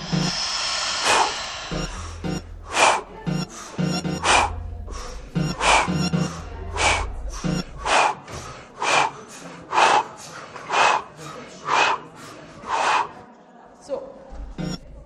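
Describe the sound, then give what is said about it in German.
Rapid, breathy bursts of air repeat through the whole stretch, like several people inhaling and exhaling forcefully together as they are told to breathe in again, each puff sharp, with a low rumble underneath. “Atmet noch einmal ein, atmet ein”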